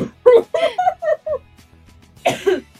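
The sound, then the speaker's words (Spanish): A fairly loud run of coughing: several quick hacking bursts in a row, a brief pause, then one more forceful double cough near the end. “Aviso de inmediato que nuevamente será un capítulo muy alto en tos.”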